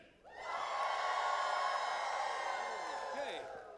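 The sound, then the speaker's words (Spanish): A crowd, prompted on a count of one, two, three, lets out a loud, sustained cry of joy together, a single held shout of many voices lasting a few seconds before tapering off. “Vamos, un, grito de júbilo, lo pueden decir a la una, a las dos y a las tres.”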